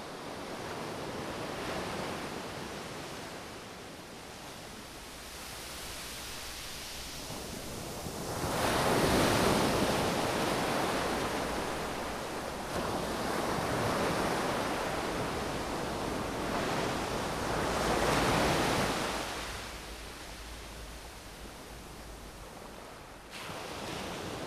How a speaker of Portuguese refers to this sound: o som do mar é, é qualquer outra coisa. É, eu acho que eu durmo bem se estiver eh, junto ao mar, eh, aquele, aquele barulho das ondas a bater. Eh, é? Faz muito me lembrar a Moçambique.